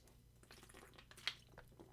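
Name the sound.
sipping water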